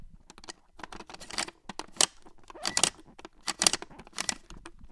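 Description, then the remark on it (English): Plastic gears inside the chest of a 16-inch Playskool Big Frank (Frankenstein's monster) toy from 1992 are spun by hand, with a rapid, rattling clatter of dry clicks coming in uneven bursts that swell and fade over several seconds, with no talking. “And when you open up his chest, there's a bunch of gears. I'll spin the gears for you.”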